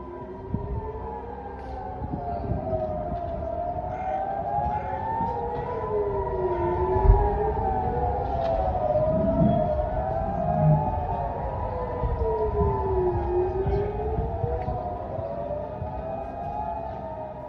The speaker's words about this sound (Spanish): no es tan infrecuente, pero el sonido de las sirenas antiaéreas volvió a invadir todo el país.